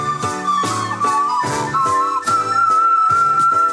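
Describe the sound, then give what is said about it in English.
A person whistles a recorder solo melody: a clear, high tune that holds long, sliding notes over steady rhythmic band accompaniment, the whistling loud with chords pulsing underneath. “I could maybe whistle this entire recorder solo.”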